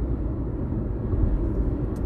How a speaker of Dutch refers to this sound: Maar dat komt, ik ben ook aan het auto rijden.